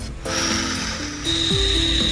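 Breathing through a scuba regulator as a person tries it out before going into the sea, heard as a loud, steady hiss of rushing air with a faint whistling tone, swelling again partway through as a second breath comes.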